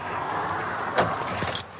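An automatic door at a supermarket slides open by itself with a steady whooshing hiss, broken by a couple of brief clacks near the end. No one speaks.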